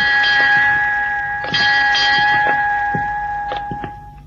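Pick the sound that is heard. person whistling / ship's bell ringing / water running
ship's bell ringing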